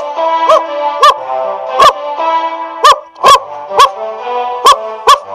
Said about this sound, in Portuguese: E quando o casal chegou em casa, seu amado cachorro Max latiu para cumprimentá-los.